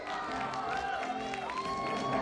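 A crowd at the premiere of Kevin Tsai's film 《痴痴的爱》, starring Dee Hsu, claps steadily for a couple of seconds to welcome them, a dense, even wash of applause with some cheering and scattered voices mixed in.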